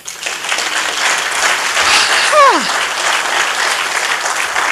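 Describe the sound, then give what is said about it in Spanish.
An audience at a church service breaks into steady, loud applause for the Lord that fills the whole clip, with a brief rising-and-falling shout or whistle cutting through the clapping midway. “Si usted cree que Dios responde, dele un aplauso al Señor.”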